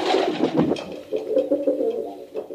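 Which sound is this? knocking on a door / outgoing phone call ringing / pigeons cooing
pigeons cooing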